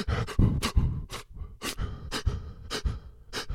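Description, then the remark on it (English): A voice imitates the ragged, hitching breaths of crying, a rapid series of short gasping inhales and exhales in an uneven rhythm, fairly loud with no talking. “And then I had that um, I had that thing where like if you don't breathe right, you start”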